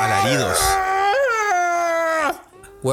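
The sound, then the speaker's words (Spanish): A voice imitates the hellish, agonized screaming of an old man of about 65 as a nurse began on him, with loud, drawn-out wailing howls that swoop up and hold a strained high pitch, breaking off briefly before another scream begins. “alaridos. alaridos del infierno.”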